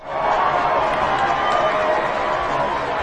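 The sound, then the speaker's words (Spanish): A live show audience in Lima, Peru breaks into sustained applause to say they liked the first segment, a dense, steady wash of many hands clapping at an even loudness for about three seconds, with a faint murmur of crowd noise mixed in. “Sí o no, por favor, esto se define con aplausos.”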